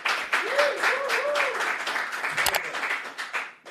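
A burst of applause from a crowd on the YouTube show Molusco TV, dense steady clapping with a few whoops and cheering voices rising over it, fading slightly toward the end.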